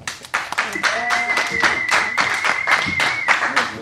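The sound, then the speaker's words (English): An audience applauds loudly for a few seconds to pick a favorite, starting with Conner McSpadden as King of the Hill. Dense clapping throughout, with cheering voices and a long, steady high whistle riding over the noise. “Pick a favorite with your applause, starting with Conner McSpadden, King of the Hill.”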